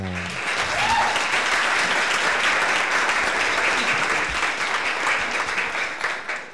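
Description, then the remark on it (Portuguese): Loud, sustained applause from a crowd welcoming a guest, a dense crackle of many hands clapping steadily for several seconds before tapering off slightly at the end. “palmas bem altas, tu mereces umas palmas bem altas.”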